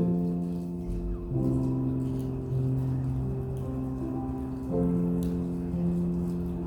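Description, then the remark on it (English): Many small plastic seals on communion cups are torn open by their tabs at once during communion, crackling and crinkling in a steady rain-like patter that runs under sustained soft organ-like tones throughout. “And I hear a lot of the crackling, so that's that's good.”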